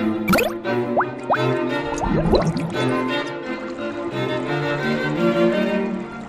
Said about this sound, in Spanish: ¡Oh, no! exclamó consternado, viendo cómo su hacha volaba, describiendo un arco para caer tras feliz pirueta en las aguas del río. ¡Chaf! Y hasta el fondo se hundió.